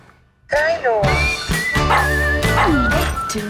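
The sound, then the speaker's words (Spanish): A dog yips and whines in a rapid string of high, bending cries, loud, starting after a brief quiet moment with a busy background mixed underneath. “Estás siguiendo un perro.”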